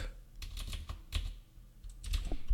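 Keys clatter on a computer keyboard as someone types a zip command into a command-line shell, short irregular bursts of crisp, fairly soft clicks with brief pauses between strokes and no talking.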